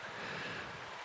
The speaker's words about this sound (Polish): Więc e, nie jest najgorzej. Nie są to idealne fale, jeszcze będę pracował nad tym, jak to zrobić, bo dużo rzeczy poprawiam ja już wymyślam nowe sposoby, nowe jakieś patenty na właśnie obejście takich rzeczy, jak przykładowo teraz e, wiatr.